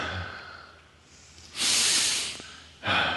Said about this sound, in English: Take a breath.